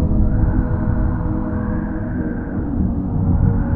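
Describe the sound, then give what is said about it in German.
A steady, deep rumble rolls on without a break, like thunder grumbling far away. It stays moderately loud throughout, with no voices and no sharp cracks. “Die Wolken um dich herum werden dunkler. Du hörst ein leichtes Grummeln.”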